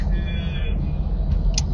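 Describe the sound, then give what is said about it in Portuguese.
Steady low road rumble fills the inside of a moving car, with a faint whine above it and a brief high squeak near the end; no one speaks. “hoje, hoje, hoje estou no carro e vou falar de algo”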